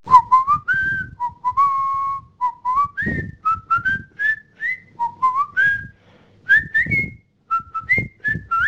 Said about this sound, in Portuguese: Tem uma demo do Facebook que eles pegam um assobio de um maluco, um assobio tosco.